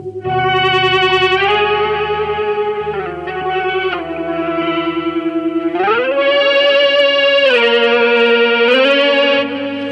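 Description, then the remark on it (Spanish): Sustained electric guitar notes with a shimmering chorus effect, held chords and gliding pitch bends ringing out loudly and continuously, with no voices. “Le ponemos un poquito de chorus y tal, y es que los sonidos que te sacas son.”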